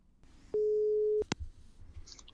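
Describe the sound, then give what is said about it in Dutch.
A single loud, steady telephone ringing tone sounds for about half a second as a call is placed, then a sharp click as the line picks up, leaving faint line noise. “ik ga eerst eh, bellen met, eh, met Maurice de Hond”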